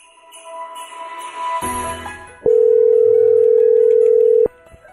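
An outgoing call's ringback tone on a call placed by the 97.3 The Fan radio show: one loud, steady, mid-pitched buzz lasting about two seconds, preceded by faint clicks and rustling. No one speaks.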